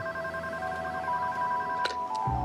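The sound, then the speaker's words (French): A telephone rings with steady electronic tones, sustained and fairly clear, with a couple of brief clicks near the end and no voices, as Michel calls Bernard Rivin on 5 January 1999. “Le 5 janvier 1999, Michel appelle Bernard Rivin au téléphone.”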